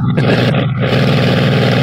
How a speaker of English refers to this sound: where is this plane from? This is not Red Baron stuff, right? Is this normal? This is new? Or is it old? Huh?